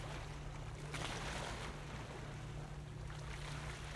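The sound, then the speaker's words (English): Waves lap and wash steadily against the painted wooden sides of a fishing boat rocking gently under moonlight, a continuous splashing with a low rumble beneath and light wind, and no voices. “I didn't mean for it to happen, but there under the moonlight, lulled by the gentle rocking of the waves, the lapping sounds of their breaking against the painted wooden sides of the boat, I must have fallen asleep.”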